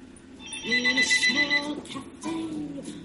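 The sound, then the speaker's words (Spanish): Telephones ring in repeated electronic trills, fairly loud, with muffled voices talking underneath throughout. “Veo que sonan los teléfonos.”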